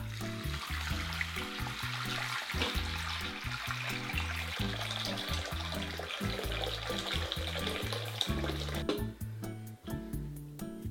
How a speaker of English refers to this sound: And then I'm gonna take the water and fill the crock pot about halfway up.